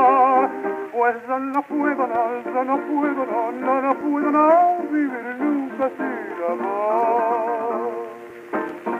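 An old recorded tango song plays, a sustained sung melody with wavering vibrato over accompaniment, its sound thin and band-limited like a vintage record, steady and fairly loud throughout.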